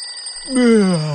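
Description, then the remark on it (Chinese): A police station telephone rings early in the morning before dawn with a thin, steady high-pitched electronic tone, then a voice cuts in with a drawn-out cry that slides downward in pitch while the ring fades. “这天清晨，天都还没亮，警察局的电话就响了起来。”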